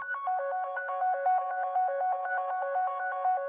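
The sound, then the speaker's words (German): A mobile phone ringtone plays a quick, repeating electronic melody of bright synthesized tones, steady, with no talking over it. “Vor ein paar Wochen zum Beispiel schreckte der Schauspieler Sebastian Strehler auf, als sein Handy klingelte und sich das Hamburger Thalia Theater bei ihm meldete.”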